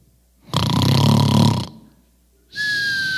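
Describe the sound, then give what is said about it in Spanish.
A voice imitates snoring: a loud, rough, rattling snort lasting about a second, then after a short pause a high, whistling wheeze. No talking is heard. “Porque algunos roncan.”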